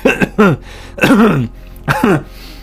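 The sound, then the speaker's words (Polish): A voice imitates the raspy, hacking laugh of a long-time smoker that breaks into harsh coughs: three rough, throaty bursts separated by short pauses. “Śmiech y, wieloletniego palacza, który zaczął się śmiać, ale dostał ataku kaszlu.”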